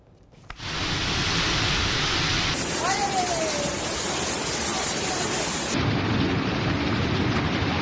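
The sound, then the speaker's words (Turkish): A sudden heavy downpour roars steadily after a brief quiet start, a dense, unbroken hiss of pouring rain that shifts slightly in tone partway through; the rain turned to flooding within minutes. “Aniden bastıran birkaç dakikada sele dönen sağanak yağmur hayatı felç etti.”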